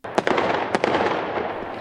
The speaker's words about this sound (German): Mittlerweile gibt es Feuerwerk überall auf der Welt.